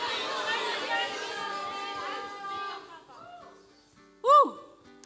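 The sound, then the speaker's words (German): A large crowd yells together on a count of three in a loud, dense roar that fades out over about three seconds, followed by a single short, sharp shout from one voice near the end. “Schrei es raus, schrei es für dich raus.”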